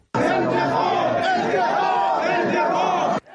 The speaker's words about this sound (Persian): سه روز پس از این فریادها برای انتقام حمله به کرمان